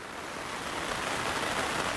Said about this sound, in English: Under my quilt now, the rain finally comes and lets loose, lashing against the windows.